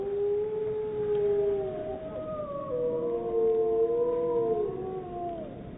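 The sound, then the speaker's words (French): A recording of a pack of two wolves howling together in long, overlapping tones, one voice lower and steady while the other glides higher, their pitches weaving and bending over a soft background hiss. “C'est un enregistrement de deux loups, d'une meute de deux loups.”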